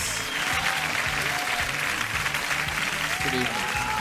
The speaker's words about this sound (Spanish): Mucho aplauso, mucho aplauso.